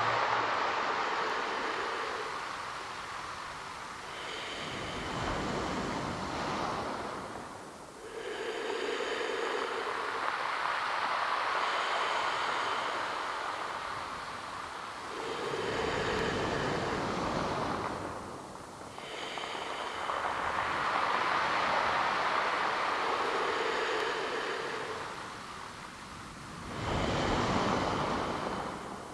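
Sea waves wash onto the shore in slow, repeating surges, each swelling into a broad hiss and then receding, roughly every five to six seconds, with no voices present.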